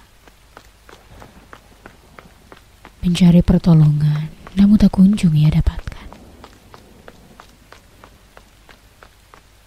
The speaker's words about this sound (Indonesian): Ia berlari dengan terengah-engah.